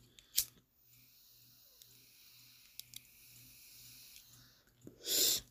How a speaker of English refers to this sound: initially you'd hear the bubbling sound of the bong in the background